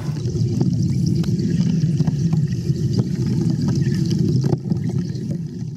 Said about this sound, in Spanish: Lo que suena es la combustión del oxígeno con la electricidad bajo el agua.